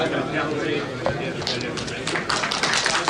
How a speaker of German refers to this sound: Aha, jetzt gibt es Beifall. Das ist für eine Pressekonferenz ganz ungewöhnlich, aber in diesem Fall wohl sehr gut zu verstehen.